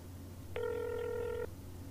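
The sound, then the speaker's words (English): A telephone ringback tone heard down the line as a call is placed to a landlord: one steady, buzzy ring lasting about a second, rising over a faint low hum, then cutting off cleanly. No one speaks. “It's ringing.”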